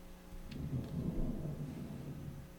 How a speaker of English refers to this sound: What's that noise? I'm not sure. I. That was weird. Yeah, sounds like thunder.